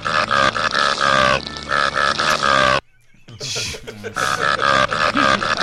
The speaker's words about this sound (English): It's a burp button, hmm. but the burps are randomized, and every like third one is a yeah. different fart. But you can just hammer on the Shrek fart burp button, and this is what it sounds like.